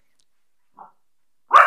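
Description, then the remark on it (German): A dog gives a short, soft woof followed a moment later by a louder, sharper bark, with silence between them, as it guards the house. “Und der Hund äh, denkt, er müsste hier das Haus verteidigen.”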